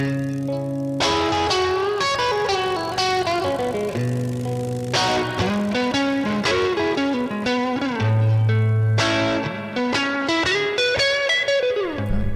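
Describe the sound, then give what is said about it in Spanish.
A loud, distorted electric guitar riff plays continuously, moving through repeated melodic phrases with sustained chords and shifting notes, with no voices present. “Así que cuando oí este riff”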